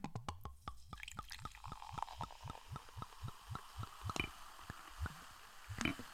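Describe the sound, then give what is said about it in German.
A drink glugs from a bottle into a glass in a quick, steady series of deep, bassy gulps, fairly loud, with no talking. “da war ein außergewöhnlich satter, bassiger Sound dafür, dass ich nur aus einer Flasche eingeschenkt ja. habe.”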